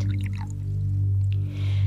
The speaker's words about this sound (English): Finally, the whistle of the kettle startles her back to reality. She turns off the burner and pours the steaming water into her cup before walking over to the table and taking a seat.